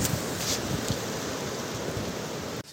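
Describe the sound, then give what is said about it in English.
A steady, cool outdoor breeze by a river rushes across the microphone with a few low buffeting thumps, blending with a broad, water-like hiss; no one speaks, and the noise cuts off abruptly at the end. “It's a little colder with the breeze, but all I have to do is just walk onto shore and I warm up.”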